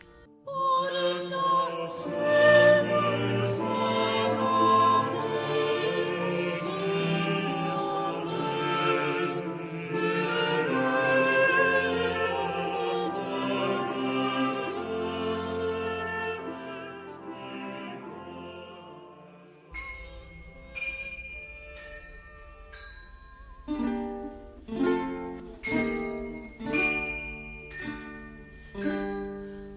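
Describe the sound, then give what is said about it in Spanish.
A Renaissance Spanish court song melody from the Cancionero de Palacio, 'Por las sierras de Madrid', played instrumentally, first with full sustained tones layered together, then shifting to bright, plucked or struck notes in a steady, rhythmic pattern. “esta misma melodía que estamos escuchando del cancionero de Palacio.”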